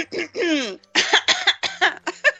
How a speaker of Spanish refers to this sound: y la tos ha sido natural, total.